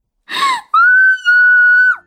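A sharp, breathy gasp followed by a long, shrill, high-pitched scream of excitement from a fan upon seeing the star Xu Yaoyan, holding steady before dropping away at the end, with no talking.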